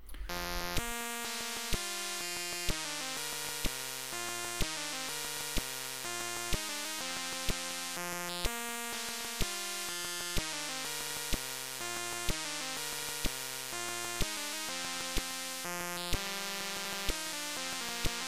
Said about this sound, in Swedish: så här låter John Williams klassiska tema fräst ur en Sinclair-maskin 48K